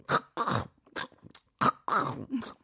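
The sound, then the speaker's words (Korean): Loud, wet lip-smacking chewing from a roommate eating a meal comes in about six uneven bursts, with short pauses between them and low grunting mixed in. No one speaks. “밥을 먹을 때 쩝쩝거리며 먹는 룸메이트.”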